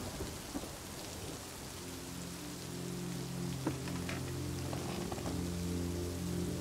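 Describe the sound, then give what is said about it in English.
Steady rain pours down in a dense, even hiss, with a deep rumble of thunder rolling underneath and a few sharper drips standing out. “Observing the approaching heavier clouds, the rain becomes heavier and the rumbles of thunder more frequent.”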